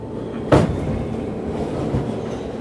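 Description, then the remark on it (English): A subway train clatters steadily along the tracks, a dense rumble with one sharp metallic clank early on and a softer knock later, and no voices. “Jason remembers being on the subway with Richard and Richard getting callbacks for auditions.”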